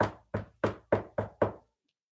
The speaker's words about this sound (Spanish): Entonces llegaron a una casa y él tocó la puerta de esa casa